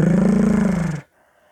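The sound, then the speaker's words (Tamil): A loud, rumbling growl-roar lasting about a second, steady with a rapid rolling flutter, then cutting off sharply into quiet. It sounds like a voice imitating a tiger's roar. “கர்ன்னு புலியோட கர்ஜனையாக வந்துச்சு”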